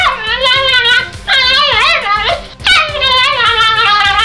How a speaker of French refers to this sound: Le premier, Isidore, un vieux pitbull qui a eu une grosse extinction de voix après avoir avalé trop de couleuvres.